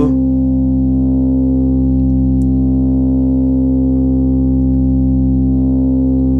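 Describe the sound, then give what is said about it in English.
A sustained, buzzy analog synth drone from two oscillators, oscillator 1 set to a saw wave and oscillator 2's volume being raised, with a slow wavering pulse as they beat against each other. Steady and loud throughout, with no voices. “and you can listen a little the sound is coming you can feel the oscillation between the oscillators”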